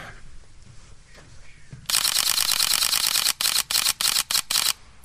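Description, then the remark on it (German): Rapid burst of shutter clicks from a Sony NEX-5N mirrorless camera set to manual mode, starting as a fast continuous rattle and then breaking into a stuttering series of short bursts with brief gaps, fairly loud after a quiet start. “Das ist eine Sony Nex 5N auf manuellen Modus gestellt.”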